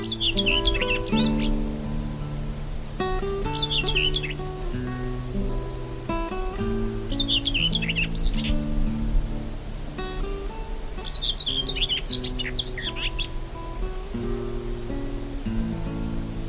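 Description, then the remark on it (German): A common whitethroat sings four short, scratchy, hurried warbling phrases separated by brief pauses. The song is clear over a steady bed of soft background music. “Das war die Dorngrasmücke.”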